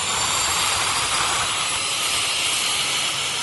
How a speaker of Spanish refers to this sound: y los sonidos de descarga, como el ruido del motor de un avión al despegar o del rock pesado